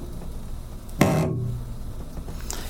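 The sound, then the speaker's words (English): A cello, played by a teacher for a third-grade class, lets out one short, low, raspy blurt that sounds like a rude bodily noise, lasting about half a second against a quiet background hiss. “And so, if you can imagine being back in third grade for just even a moment, don't stay there long, that sound was fascinating to me bodily noises on an instrument?”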